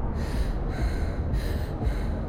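Ragged gasping breaths come in quick, uneven bursts, several in a row, each a rough rush of air with no talking around them, as a woman rides in a car approaching a long-awaited place.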